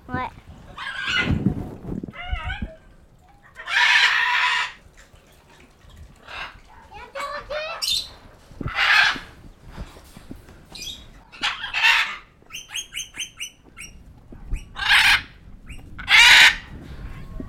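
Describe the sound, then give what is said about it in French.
A caged parrot squawks and screeches in loud, harsh bursts, with raspy chattering calls and short pauses between them, repeated many times. “on va voir s'il répond. Pourquoi t'es en cage Fais plus simple, peut-être. Perroquet”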